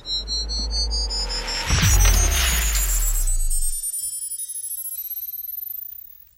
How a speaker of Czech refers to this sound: Tak já zapínám teleport.